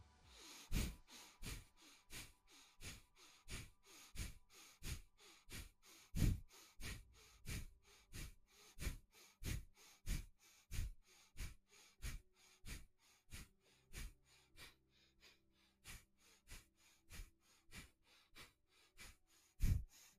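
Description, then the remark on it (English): A round of a guided breathing exercise: quick, forceful inhales and exhales in a steady rhythm, roughly two breaths a second, for about twenty seconds, with faint soft music humming underneath. “Okay, we're gonna do another round of the breathing.”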